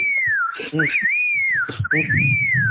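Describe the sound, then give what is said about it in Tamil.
A man whistles a wavering, sliding melody like a messenger sparrow while walking in Sims Park, the clear tone swooping up and down continuously, with some low murmuring sounds underneath. “அவர் வந்து சிம்ஸ் பார்க்ல தூது சொல்லக்கூடிய குருவி மாதிரி விசில் அடிச்சே போறான் சரி”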